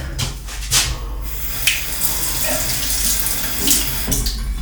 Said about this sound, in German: Genau, jetzt wird Zähne geputzt. Also ihr hört jetzt die Nerven der Zahnbürste. Also ich finde die Nerven.